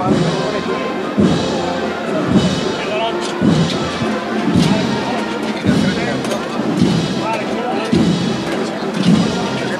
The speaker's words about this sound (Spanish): El sonido de esos varales.